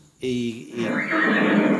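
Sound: horse neighing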